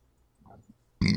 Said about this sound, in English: excuse me, there was one of the burps I was holding back.